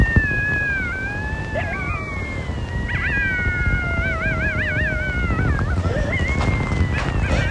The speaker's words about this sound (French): ça les amis, c'est des coyotes. Euh, je trouve ça cool. Et à la fois, j'ai fuck l'idée, c'est dangereux des coyotes, mais bon.